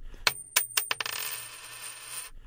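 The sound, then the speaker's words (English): A tossed coin bearing superheroes on its sides lands on a hard surface with several quick metallic clinks, then spins and rattles in a long, ringing wobble before settling. Fairly clear, with no voices. “So, we've got a coin with superheroes on one side or the other.”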